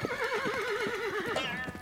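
A horse whinnies loudly with a long, quavering neigh that rises and trembles, while rapid hoofbeats drum underneath in a steady galloping rhythm, as two riders gallop their horses quickly toward the summit of a mountain.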